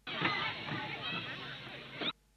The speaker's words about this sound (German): Das Quietschen von Kindern im Schwimmbad vor Freude